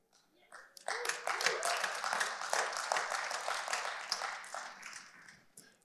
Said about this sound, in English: These Southsiders here gave me some kind of Augusta golf clap.